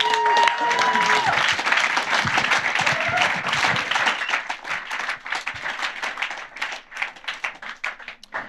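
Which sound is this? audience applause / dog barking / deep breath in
audience applause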